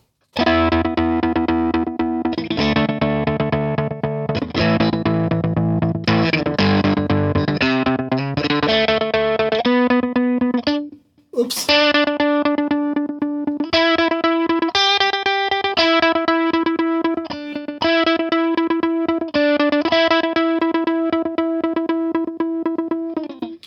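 Distorted electric guitar played through a pedalboard of effects and an amp, loud and sustained, with chords shifting in a steady rhythm, a brief cutout near the middle, then a run of repeated held notes with a rich, saturated tone.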